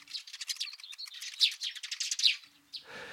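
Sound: bengalese finch song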